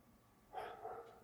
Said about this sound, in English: I apologize for the dog. It's not mine.